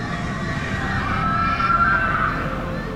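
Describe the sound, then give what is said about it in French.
Terrified screams from people on fairground rides rise as a high, wavering wail over a dense, noisy fairground din for a couple of seconds. “Pareil pour les cris de terreur sur les manèges.”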